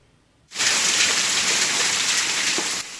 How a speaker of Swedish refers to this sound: Så här såg det ut för några av de boende i Skaraborgsområdet under onsdagskvällen. Ett rejält oväder drog in och det har haglat hagelkorn stora som golfbollar.